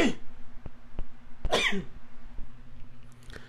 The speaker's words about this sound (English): Now, here comes a sneeze again.